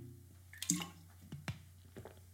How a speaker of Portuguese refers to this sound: Vou dar aqui mais um golinho.